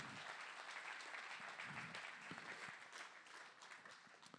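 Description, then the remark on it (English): An audience claps their hands together to give God praise, in sustained, dense applause at a steady level, with no one speaking over it. “Come on, clap your hands, everybody.”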